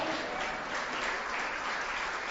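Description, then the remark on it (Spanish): The women of an audience applaud, the men not joining, a steady, dense wash of many hands clapping at an even level for a couple of seconds with no voices rising above it. “Las mujeres aplaudan, los hombres no.”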